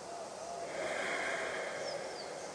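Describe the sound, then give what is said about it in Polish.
A long, airy breath drawn through the nose, a soft steady hiss lasting a couple of seconds, quiet, with no talking; the third very deep inhale through the nose in a guided relaxation exercise. “Teraz weź trzeci, bardzo głęboki wdech nosem. Zatrzymaj na chwilę powietrze w płucach i wypuszczając powietrze nosem, zrelaksuj się totalnie.”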